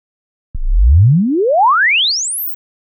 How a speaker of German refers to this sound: ein exponentieller Sweep. Das ist sozusagen eine Schwingung mit einer bestimmten Frequenz und diese Frequenz wird dann über die Zeit erhöht